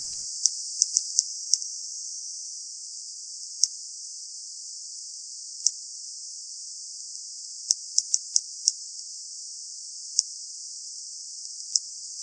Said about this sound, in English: Here is sound of sperm whales and a recording from Ocean Networks Canada.